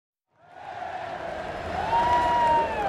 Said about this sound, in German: Es ist der 12. Juni 2000 in einem Fußballstadion in Eindhoven, Niederlande. Die Menge schreit.